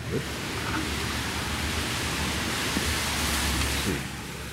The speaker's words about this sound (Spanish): Sí, aquí aguacero, qué día tan espantoso. Eh, pero es que está lloviendo desde anoche. Sí, desde anoche.